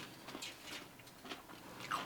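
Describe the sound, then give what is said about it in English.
Someone crunches on cucumber slices dressed with balsamic vinegar, a quick series of crisp, wet bites and chews in an irregular rhythm, fairly quiet, with no talking. “Those cucumbers are crunchy.”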